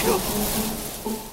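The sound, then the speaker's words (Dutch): A steady, airy rustle of tree leaves stirred by wind, a soft continuous hiss filling the short moment, with a faint voice-like hum underneath. “Dat is het geluid van de wind die tegen de blaadjes van bomen waait.”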